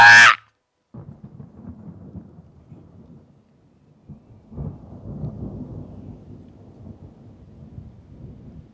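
Low, rolling thunder rumbles in waves beneath steady rain, swelling louder partway through after a brief sharp crack at the start, with no voices.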